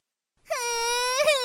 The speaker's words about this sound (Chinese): 爱美的小兔子听到小鸭子说它的门牙，一下子就气得毛都竖了起来。它哭着丢掉口哨糖。